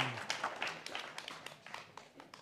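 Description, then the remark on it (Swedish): A small group claps steadily for a couple of seconds, the overlapping claps forming a brief, fairly quiet round of applause with no voices over it, welcoming an expert called up to explain orienteering signs. “Eh, applåd till honom.”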